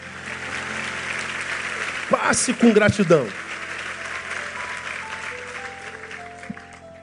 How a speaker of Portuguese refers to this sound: Aplauda ele porque ele é fiel conosco.